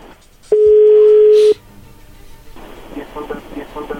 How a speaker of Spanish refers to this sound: Bueno, entonces le va a llamar el lobo, no haga ruido, ahí se está marcando.